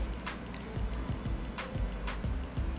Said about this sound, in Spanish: Oigan, una pregunta tengo prendido mi ventilador. ¿Se escucha ruido?